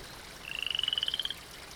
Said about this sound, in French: Oh, j'ai vu une grenouille.